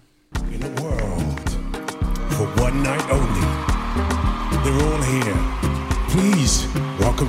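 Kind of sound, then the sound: signal or alarm, radio show jingle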